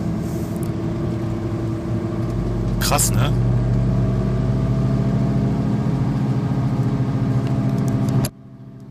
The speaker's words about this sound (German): Ne, klar, ihr hört die Radlager, ne? Warte mal, ich kann es mal lauter machen. Das ist schon krass.